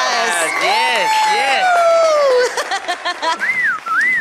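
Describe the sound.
Several people try to whistle at once, producing wavering, sliding tones that rise and fall unevenly, mixed with voices and lively chatter, ending with a couple of short rising whistle attempts.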